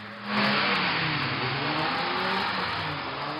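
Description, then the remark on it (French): Dozens of cars in a car rodeo, filmed in amateur footage in a small town in Île-de-France, France, rev hard and drift at full speed, engines roaring loudly with shifting pitch and a constant hiss of tires, a dense, sustained wall of motor noise with no voices. “Sur ces images amateurs, des rodéos incessants, des dizaines de voitures lancées à pleine vitesse enchaînent les dérapages.”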